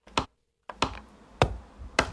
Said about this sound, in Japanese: この印鑑を押す音ねこれがねもう大活躍